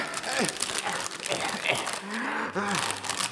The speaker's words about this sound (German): Hier, nimm die Tüte und atme da rein. Du hyperventilierst ja.